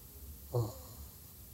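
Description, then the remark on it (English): One short, soft snore from a newborn baby about nine days old, a brief nasal snort that rises out of a quiet hiss and fades quickly. No other sounds or voices. “If you can hear that, that's a baby snoring.”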